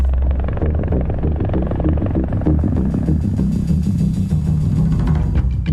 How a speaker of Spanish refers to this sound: Pero también lo vemos con el rotor de un helicóptero, por ejemplo,